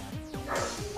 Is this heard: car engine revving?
no